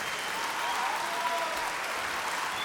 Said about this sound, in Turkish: Çok kıymetli adam. Vallahi çok alkışlayın. Çok kıymetli adam.